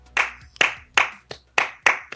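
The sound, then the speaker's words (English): Slow hand clapping: about seven sharp, crisp claps in a loose, unhurried rhythm, a couple slightly softer than the rest, with no voices. “Who is no, slow clapping for no reason.”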